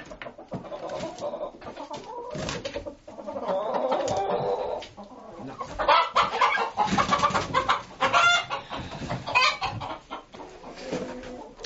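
Bronze turkeys gobble and cluck in a dense, overlapping chorus that carries on without pause, several birds calling fairly loud, with no one speaking.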